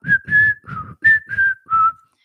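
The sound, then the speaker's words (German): Someone whistles a birdlike call imitating a bird that sits on a lilac in the garden: six clear, steady tonal notes in a rhythmic sequence, pitch dipping slightly on some notes, with soft breathy noise beneath each note. “weil da draußen ein Vogel auf meinem Flieder, der früher vor der Tür stand und jetzt hier im Garten ist, der ist jetzt näher an mich rangerückt.”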